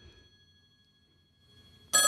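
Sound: telephone ringing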